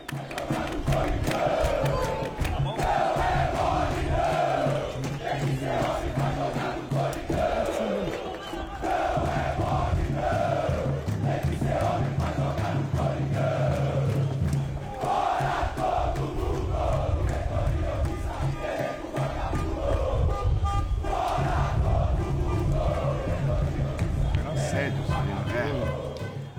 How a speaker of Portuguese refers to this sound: Foi a primeira vez que eu vejo um protesto que rolou um fora todo mundo. Era o grito.